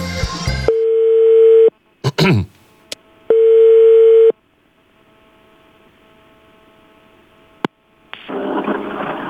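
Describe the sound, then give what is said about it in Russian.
Two long, steady telephone ringback tones while placing a phone call to a seller of tyres, each about a second of a single mid-low pitch, separated by a few clicks and a short pause, then a burst of hissy line noise at the end. “Давайте кивните, когда там гудок пойдет.”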